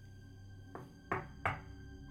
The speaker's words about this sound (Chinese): 叮咚叮咚，门铃一直响个不停。